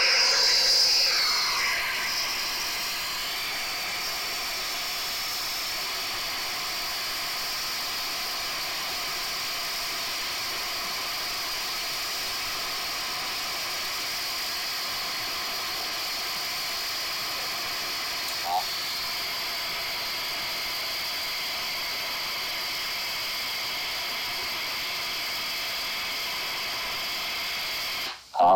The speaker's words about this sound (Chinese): 白噪音基本上在科学的讲法来讲，说是它的低频跟高频，它这个频宽来讲几乎都是一致的，啊，从头到尾都是一致。好，那我放一段白噪音给大家听一下，大家可能比较有感觉哈。